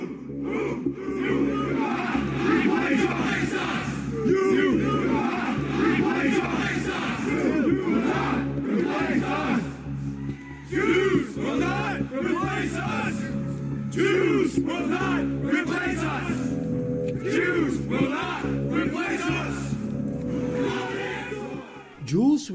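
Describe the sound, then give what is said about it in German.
A large crowd of far-right marchers at a neo-Nazi rally in Charlottesville, Virginia, chants in loud, rhythmic unison, voices shouting together in repeated slogans such as "Jews will not replace us" that continue steadily for the whole stretch, with a dense, roaring sound. “Die Juden werden uns nicht verdrängen, brüllten die Rechtsradikalen in Charlottesville vor einem Jahr.”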